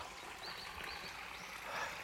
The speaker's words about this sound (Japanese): 小川のせせらぎこれか